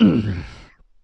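A single gruff throat-clearing sound from a voice, a short rough exhale that drops in pitch and stops abruptly, followed by silence.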